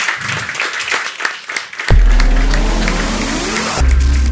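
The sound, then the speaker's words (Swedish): An audience claps for the panel participants at Almedalsveckan 2018 in a dense, steady patter for about two seconds before a loud, low droning sound abruptly takes over and drowns it out. “Och så hoppas jag att eh, publiken vill ge er en stor applåd.”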